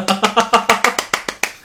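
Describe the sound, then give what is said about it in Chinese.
Applause in a quick, steady rhythm: about ten sharp, bright claps in under two seconds, loud at first and gradually easing off, with a faint murmur of voice underneath. “听懂掌声。”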